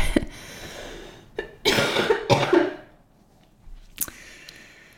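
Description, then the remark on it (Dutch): A harsh coughing fit: a quick cough, then a cluster of loud, raspy coughs bunched together, a pause, and one last sharp cough near the end. “Dankjewel voor het luisteren en of kijken. Ook voor het gehoest en um, getraan en eh, gevoelens en emoties.”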